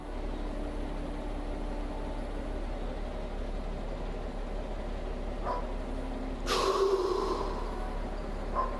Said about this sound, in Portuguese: Você vai no momento em que você percebe algo, você quer ficar mais presente em qualquer momento, você fecha os olhos, dá uma respirada e seguro.